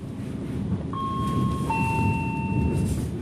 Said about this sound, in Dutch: Dus ik met mijn plooifietsje en rolschaatsen op de trein.